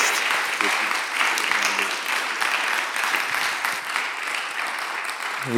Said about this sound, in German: Geben wir ihm einen fetten Applaus.